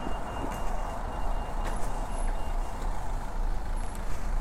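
Steady roar of road traffic outside, heavy vehicles rumbling past with a broad low-end drone, a faint high whine and brief hiss-like bursts, continuous and moderately loud with no talking.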